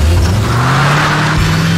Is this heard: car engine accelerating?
yes